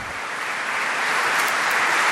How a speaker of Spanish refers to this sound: Merecen un fuerte aplauso nuestros sacerdotes que han regresado